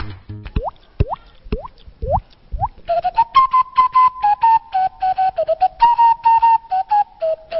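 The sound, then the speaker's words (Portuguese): Live body percussion demonstration by a man using only his own body (skeleton, flesh and bone): rising, water-like mouth pops alternate with low thumps, then a steady whistled melody runs over fast, rhythmic slaps and clicks. No one speaks. “dá uma amostra ao vivo do que ele é capaz de fazer com o próprio esqueleto, carne e osso.”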